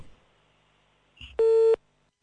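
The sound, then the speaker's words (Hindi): A steady, loud electronic phone-line tone of a failed call, from a caller without phone balance, sounds once for about a third of a second, preceded by a short clicky burst, with near silence around it and no voices. “okay balance तो डलवा लो phone करने से पहले हुस्न वालो बैलेंस तो डलवा लो”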